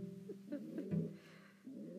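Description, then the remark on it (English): Soft, low cooing from a pet pigeon rolls on in a steady, throaty murmur, with a brief dip in level before the burbling picks back up. “once again, you can probably hear my pet pigeon in the background.”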